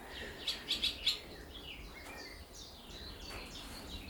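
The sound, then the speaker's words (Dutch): Barn swallows flying back and forth over shallow ponds twitter in quick bright bursts, with three sharp chirps close together near the start followed by softer, scattered chatter over a faint outdoor background. “Ook op de eerste verdieping eh, zie je de boerenzwaluwen allemaal weer heen en weer vliegen.”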